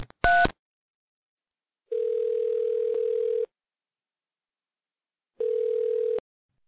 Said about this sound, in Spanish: Espera, que marco su teléfono. A ver si lo cogen.